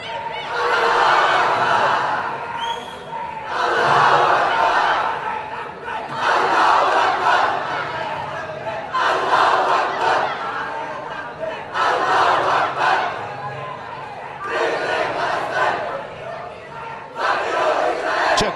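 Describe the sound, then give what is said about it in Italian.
A large crowd in the town square of Monfalcone, Italy, chants slogans such as "Free Palestine" and "Akbar" in loud, rhythmic bursts, each shout lasting a couple of seconds with brief pauses between, many voices roaring together in unison. “questi urlano Free Palestine alla Akbar, non al bar, eh, Akbar.”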